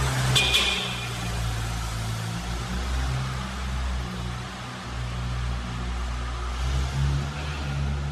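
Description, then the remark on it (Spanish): A car engine rumbles steadily as people get in and drive away from a parking lot, pulling away with a low, constant drone and road noise. A brief sharp click sounds near the start, and no one speaks. “Se suben el auto y se van.”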